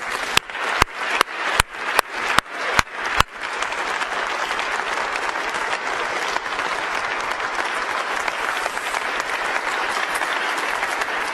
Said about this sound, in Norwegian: Kan vi ikke gi dem en applaus til, folkens?